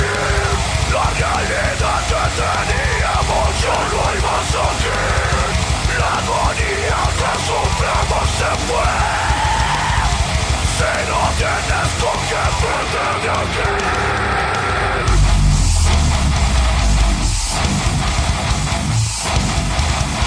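A loud, dense rock song with harsh screamed vocals over distorted guitars and pounding drums, playing continuously, with a heavier low-end section kicking in near the end.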